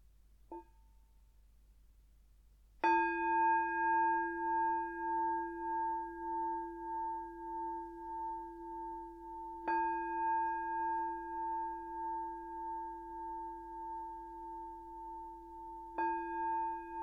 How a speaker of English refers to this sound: I'm going to start with three sounds of the bell if you want to make yourself comfortable, and I'll begin with the usual settling in introduction.